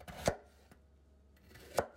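Two sharp knife chops on a cutting board while making potato salad, about a second and a half apart, with a fainter tap between them and a low background hum.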